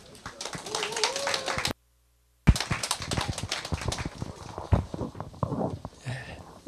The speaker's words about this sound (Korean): 나오실 때 큰 박수 부탁드립니다.